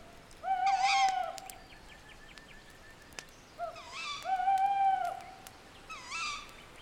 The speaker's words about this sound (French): Les habitants du jour sont allés se coucher quand ceux de la nuit s'éveillent. Chaque son est plus présent le vent au loin, le bruissement des feuilles, le ululement du hibou.